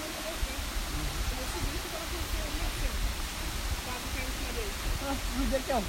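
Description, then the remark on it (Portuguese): A steady, full roar of rushing, falling water from the Véu da Noiva waterfall, heard from its top, fills the scene without letup, with faint voices murmuring underneath. “A água caindo nele.”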